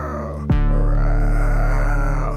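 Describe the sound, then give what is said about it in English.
A man preaching imitates a lion walking around the jungle, a loud, low, sustained growling roar that bursts in abruptly and holds for about two seconds without fading much. “Ain't no lion walking around the jungle going like this.”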